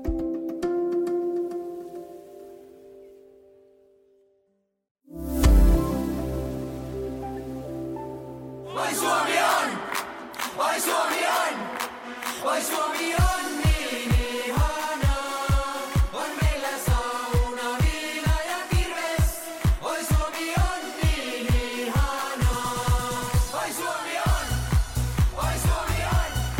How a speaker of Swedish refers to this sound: En klassisk eh, supportermelodi hörde vi här, men hur gick texten?